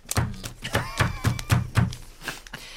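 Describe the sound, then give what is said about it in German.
Paper being hacked down onto a Wiener sausage in an attempt to cut it: a quick series of about ten dull, soft thuds in an uneven rhythm, each with a brief papery slap, moderately loud; the sausage stays intact. “Ich hack jetzt mal, warte.”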